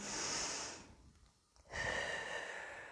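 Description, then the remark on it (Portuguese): Two slow, deep breaths, a long airy draw followed by a brief pause and another steady breath, with no talking. “Distancie o seu pensamento dessa situação, respirando profundamente.”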